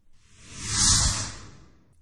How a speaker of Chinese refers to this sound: 罗隐气得将报纸揉成一团嗖的一声，从车窗扔了出去。